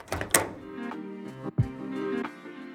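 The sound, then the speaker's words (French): The door of the Blue Café at number 1, place Dauphine, in Strasbourg is pushed open with a sharp knock at the start and a low, heavy thunk partway through, over a steady tonal background without voices. “Allez, je pousse la porte.”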